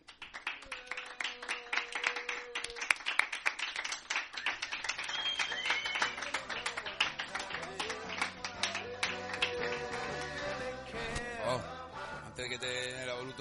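Audience applause: dense, steady clapping that builds quickly and keeps up for about thirteen seconds, with scattered voices and some tonal, music-like sounds mixed in underneath.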